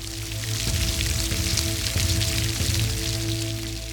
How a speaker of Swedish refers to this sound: som skvallrar om mycket blöta förhållanden från den där gången då det regnade i två miljoner år.